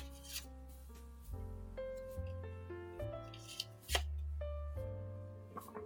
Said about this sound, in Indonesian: Dikocok dulu nih kartu.